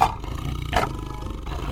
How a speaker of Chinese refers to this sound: 这时，他又听见老虎的叫声，而且还是很多只。